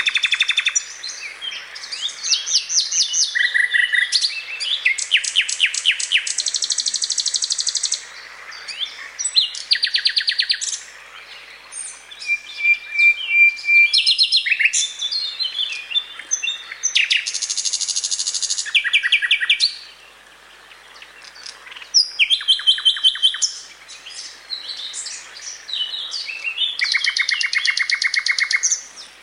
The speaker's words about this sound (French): Et là, il faudra attendre plutôt la fin du mois d'avril pour entendre dans le sous-bois ce magnifique chant du rossignol.